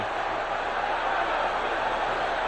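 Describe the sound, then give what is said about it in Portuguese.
A stadium crowd of São Paulo fans cheering wildly at the Brinco de Ouro stadium in Brazil after Careca's goal in extra time, a dense, continuous roar of many voices that holds steady and loud for the whole moment without breaking into distinct words. “Agora a torcida do São Paulo que vai à loucura.”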